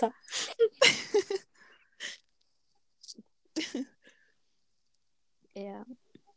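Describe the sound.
A voice fakes crying on a count of three: a run of breathy, gasping sobs and sniffles, a pause, then one short, quavering whimper near the end.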